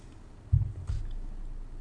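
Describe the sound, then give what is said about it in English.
Two soft, low gulps of someone taking a big sip of beer while tasting it, about a third of a second apart, followed by a quiet, muffled hum with no talking. “I'm going to have to have a big sip just to try and get what that, that end is.”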